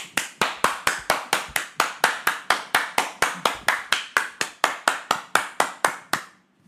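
Steady, evenly spaced hand claps, about four per second, sharp and fairly loud, keep a regular rhythm for around six seconds before stopping. No voices are heard.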